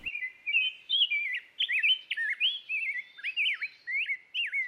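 A rose-breasted grosbeak (Pheucticus ludovicianus) sings a continuous run of rich, warbled whistled phrases, rising and falling, clear with no other sounds around it.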